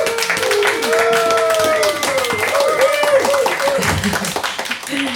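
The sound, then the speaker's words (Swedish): An audience breaks into steady applause welcoming a member of Fountainhouse Stockholm and Radio Total Normal, a dense crackle of many hands clapping at once for about five seconds, with voices calling out and chattering over it. “en applåd!”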